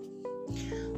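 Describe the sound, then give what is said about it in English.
A dog whines in high, drawn-out tones, one sustained cry followed by a louder, broader whimper, with no voices over it; the female dog wants desperately to be let in. “Um, I apologize about my dog in the background.”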